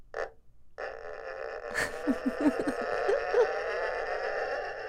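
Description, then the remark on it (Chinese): A bowed erhu imitates a creaking door opening: a steady, scratchy tone broken by a run of short squeaks and a slow, groaning pitch slide. No one speaks over it. “可以做那个开门的声效， 有吗？”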